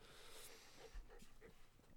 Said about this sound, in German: Ich wurde hier gerade angefallen von einem kleinen Baby-Welpen. Oh, äh, wow. ist ja am Schoß gesprungen.